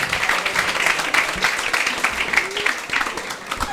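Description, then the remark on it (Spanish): Steady audience applause fills the whole moment, many hands clapping in a dense, bright patter that stays fairly loud and even throughout, with no one talking over it. “Bueno, un fuerte aplauso para ellos. Fuerte la palma para mis causas.”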